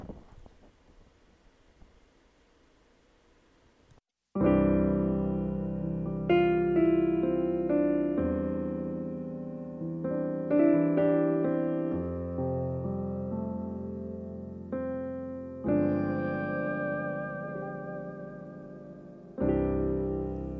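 A few seconds of faint, breathy wind-like noise give way to a Korean pop ballad entering loudly, with rich sustained chords and new phrases swelling in every few seconds.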